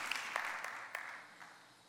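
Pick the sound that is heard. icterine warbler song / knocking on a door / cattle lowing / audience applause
audience applause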